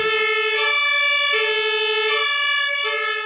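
A fire engine's two-tone siren (Martinhorn) blares very loudly, alternating steadily between a high and a low pitch in a repeating cycle, unbroken with no voices.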